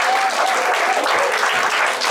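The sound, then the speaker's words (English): A church audience breaks into steady, sustained applause, a dense wash of many hands clapping at once with no pauses, fairly loud throughout. “Yeah, you can clap.”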